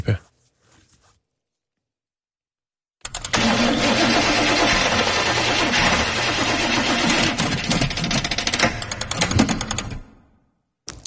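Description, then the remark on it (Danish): A car engine cranks in a long, loud, rattling burst for several seconds without catching, then cuts off. A faint voice is briefly heard before it. “Min bil kan ikke starte.”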